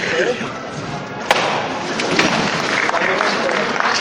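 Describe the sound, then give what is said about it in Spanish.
The wooden legs of a religious procession float, set down hard on command by its team of bearers, thump onto the ground with a sharp knock, set against a dense wash of crowd noise and murmuring voices that continues throughout. “Los zancos en el suelo y fuerte.”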